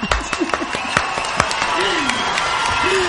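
A small group applauds: a quick run of sharp, uneven claps that thickens into a steady patter of clapping, with voices and some laughter mixed in underneath.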